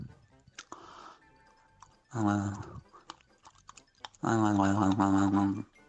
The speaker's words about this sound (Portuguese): Deixa eu só ouvir essa linguada antes, espera aí. Minha língua é tão grande que ela dá chicotada